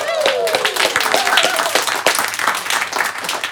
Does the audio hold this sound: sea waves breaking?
no